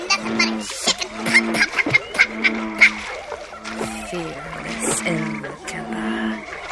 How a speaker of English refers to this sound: God, these frogs are merciless!